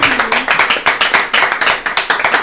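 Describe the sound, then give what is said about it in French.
An audience claps loudly for a couple of seconds, applauding a guest's career path, a dense, steady patter of many hands with crisp individual claps standing out, and no one speaking over it. “Très bien, on peut applaudir ce parcours déjà.”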